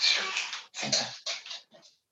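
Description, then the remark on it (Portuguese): A dog named Oscar, angry at other dogs, barks at them four times in quick succession, harsh, each bark a short rough burst with brief gaps between, the last one softer. “Estás zangado com os outros cães e pronto, se tem alguma coisa a dizer.”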